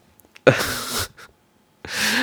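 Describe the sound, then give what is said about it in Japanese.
A sharp hiccup jolts out and trails into a noisy breathy exhale, then after a short pause a second burst begins. No one speaks. “止まんねえよ、シャックリ。”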